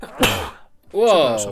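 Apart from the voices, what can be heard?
sneeze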